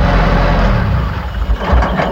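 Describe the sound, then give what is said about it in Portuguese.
A car engine runs steadily with a low, continuous rumble, fairly loud, as a man drives his car calmly, with slight fluctuations near the end and no voices. “E o homem vinha dirigindo seu carro tranquilamente quando foi surpreendido por um assaltante.”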